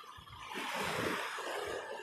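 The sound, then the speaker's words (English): A steady wash of ocean surf rolls in on the shore, swelling after a brief moment into a broad, hissing rush of water that stays fairly soft and continuous, with no voices. “So I come down here and just kind of listen to the waves.”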